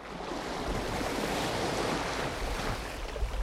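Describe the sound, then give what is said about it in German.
A steady roar of sea waves washing onto the shore, a continuous broad hiss of surf with slight swells in intensity and no voices. “Lucia Migiano liebt auch das Meer.”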